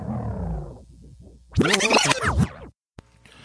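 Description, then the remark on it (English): A tape-rewind sound effect: warbling, pitch-sliding garbled audio that rises into a loud, bright, scratchy sweep for about a second, then cuts off abruptly into brief silence and a soft click. “And uh, I'm gonna just do a sound effect that sounds like I'm spinning back something, and then I'll just continue on.”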